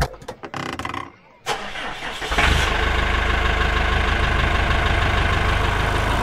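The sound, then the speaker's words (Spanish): After a brief quiet moment, a heavy tractor engine turns over and catches, then settles into a loud, steady rumbling idle that runs to the end. “Oye, ¿tú sabes conducir un tractor, frente.”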